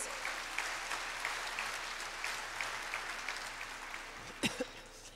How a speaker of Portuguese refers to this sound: Amém? Você pode dar salvas palmas para Jesus?